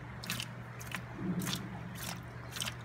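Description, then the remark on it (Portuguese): Wet, gritty crunching from an aquarium gravel siphon stirring substrate as the gravel falls back and dirt is drawn into the tube, in about five short squishy bursts at a steady pace over a constant low hum, moderately loud, with no talking. “E o substrato vai caindo, ó, vai descendo e a sujeira vai entrando no tubo.”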